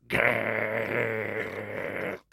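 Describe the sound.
A human voice imitates the growl of Monty the dog: one sustained, low, rumbling snarl lasting about two seconds, loud and steady with a rough buzzing texture, then cutting off abruptly.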